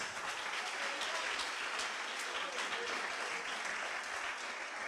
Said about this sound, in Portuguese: Glória a Deus. Bata palmas que ele merece.